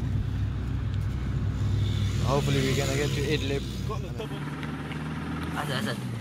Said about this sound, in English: We get out of the town, and because the car now is full of people and the weight of the car is heavy. Yeah, we're driving slow. This car's making some noise.